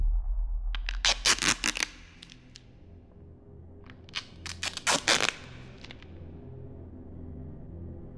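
Duct tape is yanked and torn in two bursts of sharp, crackling rips, a cluster near the start and another a few seconds later, with no talking.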